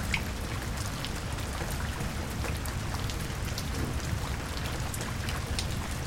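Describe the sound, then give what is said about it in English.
Heavy rain pours down in a steady, dense roar, with scattered sharper drop hits spattering over a deep continuous rumble. No voices are heard. “Guess I will poured a little more than I thought today.”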